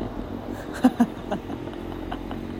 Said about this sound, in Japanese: バイクが今横通ったんですけど2人乗りでしたね可愛いですね